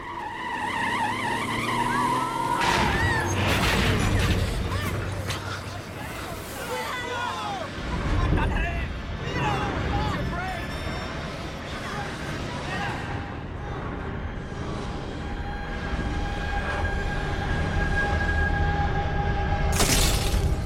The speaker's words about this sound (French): L'autobus percute un tramway de plein fouet. L'accident est violent.